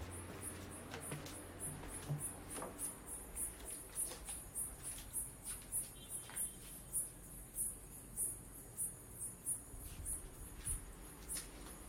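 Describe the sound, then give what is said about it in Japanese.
Insects chirp steadily at night in a quiet outdoor setting, a fast, regular high-pitched pulsing that continues throughout, soft, with no voices. “えー、まあまあなんかもう最近も梅雨明けたんですかねなんか虫の音がすごいですね”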